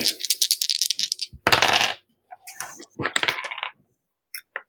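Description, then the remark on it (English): Dice rolled for a dex check in a tabletop role-playing game clatter across a table in quick, bright clicking bursts, a dense rattling tumble in the middle, then a few scattered taps as they settle. No one speaks. “So wait, am uh, I just rolling it and just without any mods whatsoever?”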